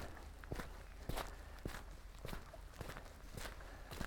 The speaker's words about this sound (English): If you ever get out hiking, if you're watching or listening to this, and yeah, I, I yammer on a lot while doing this, but there's a lot of the hike where it's just the sound of my feet.